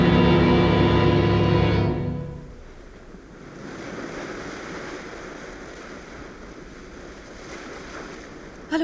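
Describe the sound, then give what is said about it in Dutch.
Sea water rushes and washes steadily alongside a ship, a broad continuous swash with wind noise, following a loud droning tone that stops after the first couple of seconds. No one speaks. “Sta je de zee te bewonderen?”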